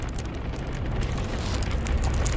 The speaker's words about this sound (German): Ich zünde eine Fackel an und werf sie in den Keller.